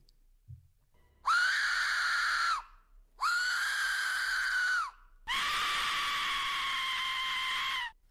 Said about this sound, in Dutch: Wat horen we nu? Een vos.